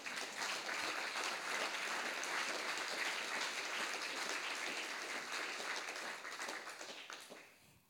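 Dense, sustained applause from many hands, a steady wash of claps lasting several seconds before gradually thinning and fading out at the end.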